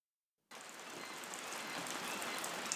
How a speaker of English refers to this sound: and I'm out in the rain, and it's winter solstice time, you know, around the 20 to 23rd of December.